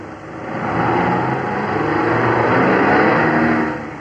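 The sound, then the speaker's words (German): The engine of a new Opel Kapitän car drones steadily and loudly while driving, swelling slightly as it revs, a continuous rumble with no talking over it. “Dicker Brummer.”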